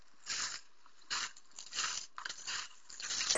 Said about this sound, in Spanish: Al llegar al barranco, en la oscuridad absoluta, no pudo avanzar más y se le llenaron los ojos de lágrimas. De repente oyó pisadas.